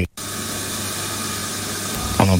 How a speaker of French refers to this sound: On entend un petit peu le, bruit là, de, l'atelier derrière avec euh, les découpes de viande, etc. Qui est-ce qui travaille à l'intérieur en ce moment-là Qui est en train de découper qu'on entend